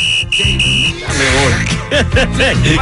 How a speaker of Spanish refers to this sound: Entonces el pito a cada rato